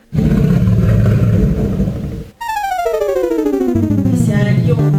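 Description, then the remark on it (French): The Atari Jaguar console startup sound: a loud low rumbling roar for about two seconds, a brief gap, then a bright synthetic tone sliding steadily downward over a sustained low drone. No one speaks. “Un animal console, les gars la Jaguar.”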